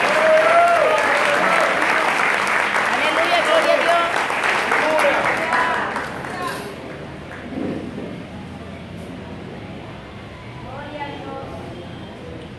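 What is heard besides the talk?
audience applauding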